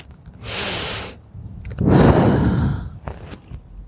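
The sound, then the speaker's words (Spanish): A person takes one airy inhale followed by a longer, fuller breathy exhale, then a faint trailing breath; no speech, just the breath sounds. “Y también se dice que la pronunciación de esas consonantes suena al sonido de que hacemos cuando inhalamos y exhalamos.”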